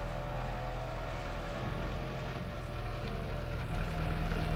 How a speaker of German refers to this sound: Mein Wagen stand in einer Tiefgarage. Als ich einsteigen wollte, kam aus einer Box eine graue Limousine.